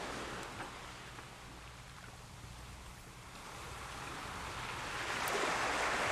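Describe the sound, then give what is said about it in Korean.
Steady ocean surf washes in at the seashore with a broad, hissing roar and low rumble, swelling louder toward the end as a wave breaks; no voices. “그리고 몇 주 후 그녀와 전 산행을 함께 했고 돌아오는 길에 바닷가에 들러 그녀와 나란히 앉았습니다.”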